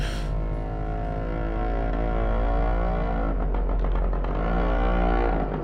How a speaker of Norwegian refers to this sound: Du hørte liksom en eh, moped eller sykkel eh, lyd utafor.